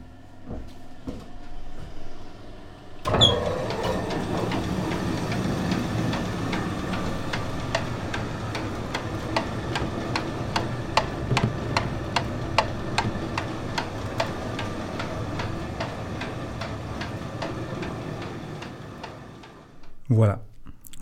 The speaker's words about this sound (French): je clôt sur le son du moulin qui démarre ce tout premier épisode du Micro dans le cambouis.